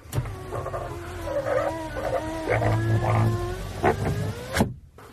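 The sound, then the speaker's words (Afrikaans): A car's left rear power window closes, its motor whining and creaking with wavering squeaky tones for several seconds before ending in a firm thunk, then silence. “En jy toemaak so.”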